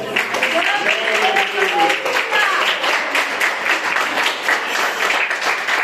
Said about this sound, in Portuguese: Amém, igreja? Vamos aplaudir a Jesus?